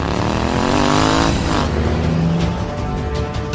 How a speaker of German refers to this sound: taucht plötzlich Owen auf seinem Motorrad auf. Er gibt Gas und fährt neben dem Truck her.